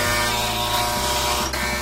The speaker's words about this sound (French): l'agaçant buzzer retentit une nouvelle fois, coupant la parole au général et perçant les oreilles des deux protagonistes grimaçants. Décembre écrasa son pouce sur le communicateur, plus pour arrêter le son que pour répondre.